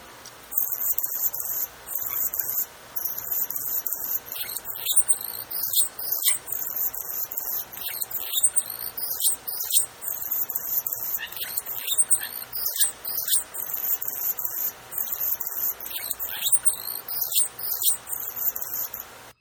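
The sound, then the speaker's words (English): A male Anna's hummingbird, a 3.5 to 4 inch resident of the Southwest, sings a thin, very high, scratchy song of rapid squeaks, buzzes and ticks, repeating almost without pause for the whole stretch, with no voices. “So let's take a moment to find this delightful bird in your ID guide while we play the male's song.”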